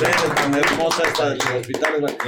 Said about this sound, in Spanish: Y un aplauso para la nueva sede, ¿no? Exactamente. Un aplauso para la nueva sede.